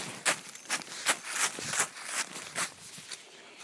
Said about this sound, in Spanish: Y de repente entramos a un bosque. En este bosque el sonido es completamente distinto. Allá íbamos arrastrando piedritas y aquí vamos arrastrando hojas. Vamos a ver si lo oyen.